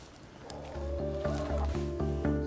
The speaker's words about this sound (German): Erst klappt es besser als gedacht. Die Hühner lassen sich schnell fangen und machen einen guten Eindruck. Der kleine Pieks gegen die Vogelgrippe scheint ihnen wenig auszumachen.